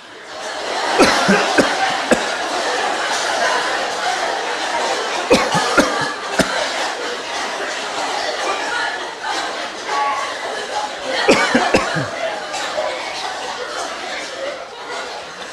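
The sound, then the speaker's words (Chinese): A crowd of people cough together, with sharp bursts clustered around a few moments amid a steady murmur of voices and scattered chuckles. “实在不行，咳嗽出来。”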